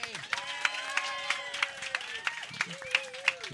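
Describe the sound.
An audience applauds with a dense, steady patter of many hands clapping for several seconds, while voices or tonal sounds hum underneath the noise.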